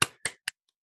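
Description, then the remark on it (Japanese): Three sharp hand claps in quick succession, fairly loud, each with a short ringing decay, the third clipped shorter than the first two, recorded with the Krisp AI noise-cancelling software switched off. No one speaks. “多分拍手の音入ってると思うんです。”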